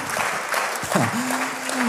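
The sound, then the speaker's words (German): An audience claps steadily for the people joining online, in a dense, continuous wash of applause, with a brief tonal whistle or cheer rising over the clapping midway through. “Lass es doch den Leuten, die online dabei sind, auch nochmal einen riesen Applaus geben.”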